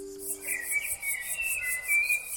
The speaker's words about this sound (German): Eine Prärieamsel sang ihr Lied. Johnny hörte ihr eine Zeit lang zu, dann antwortete er.